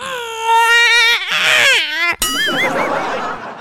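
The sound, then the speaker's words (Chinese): A baby-crying ringtone plays from a phone in a toilet: loud, high, drawn-out infant wails, a sudden brief cut, then warbling, wavering cries that slide toward giggly, laugh-like sounds. No talking over it. “他手机就响了，婴儿的啼哭声从手机里传了出来。”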